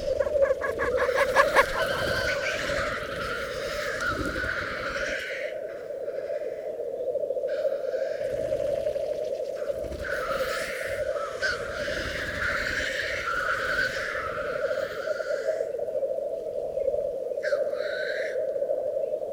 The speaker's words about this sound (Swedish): Och hönorna verkar ha valt den plats där vi placerar ut mikrofoner som sin favorit. Nu kommer en höna alldeles här.